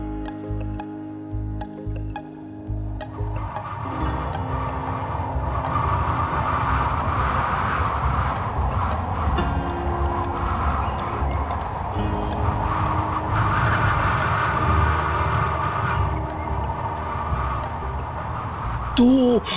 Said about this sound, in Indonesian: Di luar sini anginnya memang sedang bertiup dengan cukup kencang.